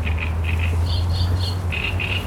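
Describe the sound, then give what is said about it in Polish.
Birds call in a steady series of short, bright chirps and squawks, repeating in pairs over a constant low rumble of car traffic, in an overgrown, long-unmowed fenced meadow in the middle of Warsaw. “Ale też ku mojemu zdziwieniu słychać ptaki.”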